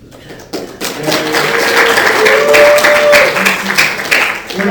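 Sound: audience applause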